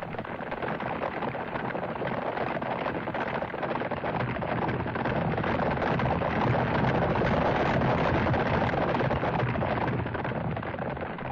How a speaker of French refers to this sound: On a l'impression que c'est le camion qui roule sur des cailloux et qui les écrase et que ça fait cette espèce de bruit. Mais si on écoute vraiment attentivement, ça évoque fortement la cavalcade de chevaux.